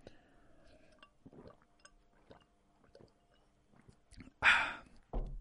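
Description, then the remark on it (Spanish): Someone drinking water: a run of soft, wet sips and swallows, then a loud breathy burst and a final short noisy thump near the end. No talking. “Y voy a beber agua para explicaroslo porque es un poquito largo, pero vais a flipar, ¿vale?”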